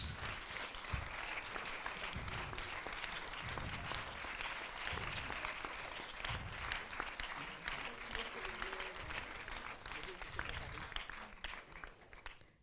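A crowd applauds steadily for about twelve seconds, a dense, continuous patter of many hands clapping at even loudness, with a few low thumps underneath and a slight fade at the end.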